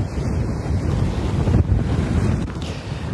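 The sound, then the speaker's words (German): Steady wind buffets the microphone over the low rush of waves by the water, a continuous, fairly loud roar with no voices. “wie gesagt, ich bin gerade hier am Wasser.”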